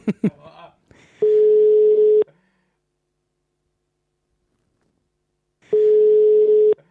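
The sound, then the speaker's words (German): A telephone ringback tone from a call placed to Jan Philipp Repp sounds twice, each a steady mid-pitched hum lasting about a second, separated by a long silence, with no one answering. A few brief clicks and noises come first. “Also, ja, wir rufen jetzt den Jan Philipp Repp an.”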